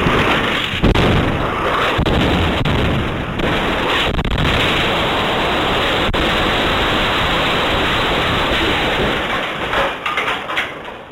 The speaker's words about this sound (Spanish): Oirán una detonación muy cerca de donde él estaba grabando. Escuchen.